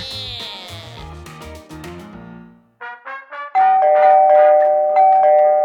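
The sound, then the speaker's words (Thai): A doorbell chime rings out several times in quick succession, its ringing tones overlapping, followed by a few short repeated presses and then a steady, sustained electronic tone. No one speaks. A visitor keeps pressing the doorbell of an old man's home while he does not come out. “คุณลุงทำอะไรอยู่นะกดกริ่งเท่าไหร่ก็ไม่ออกมา”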